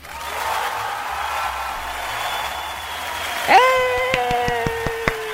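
A show audience applauds to welcome a guest for several seconds as a steady wash of clapping, over a held tone that sweeps down partway through, then a few sharper claps ring out at a regular beat.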